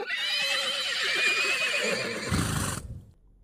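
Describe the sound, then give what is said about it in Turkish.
A horse lets out a loud neigh with a quivering, wavering whinny that lasts about three seconds before cutting off, a brief low rumble near the end. “Haydi şoz beygirleri.”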